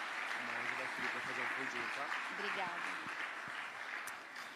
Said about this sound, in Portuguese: Glória a Deus. Aplauda a Jesus mais uma vez.